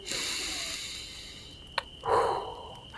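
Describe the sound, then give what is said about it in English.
A single sharp nasal sniff, a quick forceful inhale through the nose lasting about half a second, preceded by a faint tick against a quiet steady hiss. “So let's inhale, friends.”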